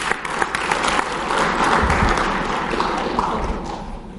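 A church audience applauds a family during a service, steadily for several seconds, a dense wash of clapping from many hands that swells slightly in the middle and stays fairly loud throughout.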